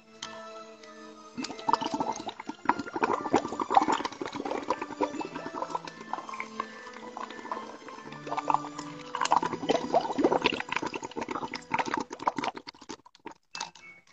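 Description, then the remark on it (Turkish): Continuous bubbling and gurgling seawater, as if heard underwater while diving to the bottom of the sea, with dense crackling pops rising and falling in waves over a brief low tonal hum at the start. No talking. “Hadi şimdi denizin dibine dalalım.”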